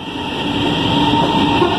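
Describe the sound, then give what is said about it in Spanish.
A passenger train in Argentina rolls along its rails with a steady, loud rumble and broad mechanical hum, with no voices. “Estoy viajando por primera vez, me parece una buena opción para volver a mi ciudad.”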